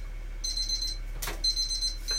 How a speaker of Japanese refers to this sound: 今ね、タイマーが鳴りましたね。このタイマーは何かっていうと、えっ、ー、と、ご飯が炊けましたよっていうサインですね。はい。土鍋で炊いてるご飯が今炊けましたね。